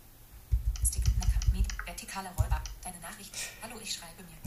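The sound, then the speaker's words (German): A rapid flurry of clicky keystrokes on a computer keyboard, with dense bursts early on and scattered taps later, mixed with soft background murmuring or low voice-like sounds. “Also Sprachnachrichten kann man wohl mit einer Tastatur nicht schicken.”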